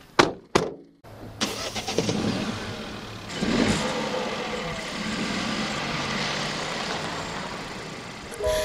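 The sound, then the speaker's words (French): A car door thuds a couple of times, then an engine cranks and starts, revving up as the car pulls away on a sunny, warm day and drives steadily with a constant road and engine rumble. “d'aller en voiture. C'est parti.”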